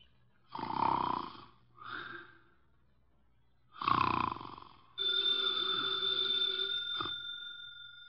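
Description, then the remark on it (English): A man weighing about 300 pounds, sitting in a chair in an office with his eyes closed, snores loudly through his nose: two long rasping snores with a shorter one between. Then a telephone on the desk starts ringing steadily and drowns out the breathing. “His eyes are closed, and he's making sounds through his nose.”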